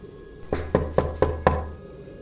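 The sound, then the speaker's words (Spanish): Five quick, evenly spaced knocks on a wrought-iron door off a hallway, sharp, in a steady rhythm, then quiet. No one speaks. “Mi amigo tocó y yo le dije que mejor nos fuéramos, que teníamos una última oportunidad de hacerlo.”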